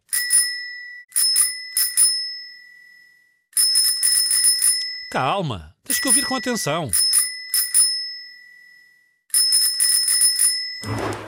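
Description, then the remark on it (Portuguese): A bicycle bell rings in several quick, bright bursts of rapid trills, clear, with a short spoken interruption from a person in the middle and a thud at the end. “É o som da campainha de uma bicicleta.”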